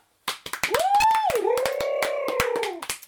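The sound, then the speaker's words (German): A small burst of applause for a guest: a few people clapping in quick, uneven bursts for about three seconds, with a long rising and falling vocal cheer ringing out over the claps. “Danke, ein kleiner Applaus für dich.”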